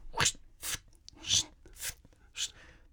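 A shovel scrapes through gravel in five crunchy, gritty strokes at a steady rhythm, each a short rasping burst. The scraping is moderately loud, with nothing else heard.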